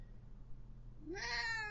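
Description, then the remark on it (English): A single meow from a cat named Kitty rises clearly after a quiet pause, fairly loud, with a bright, slightly drawn-out tone over low background hum. “Kitty, would you like to say goodbye?”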